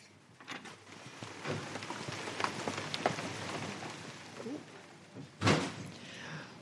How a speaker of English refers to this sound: Do we have to run through the rain to get there? Yes, there are some bits through the rain.